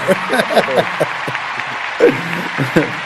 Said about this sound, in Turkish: hiç kusura ee, bakma kendimi tutamam alkışlarım piyano çalmıyor alkışlarım burada.